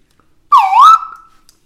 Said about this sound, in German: Ja. Äh, wir, ein äh, fröhliches Unentschieden. Ich spiele die Pfeife der Egalität.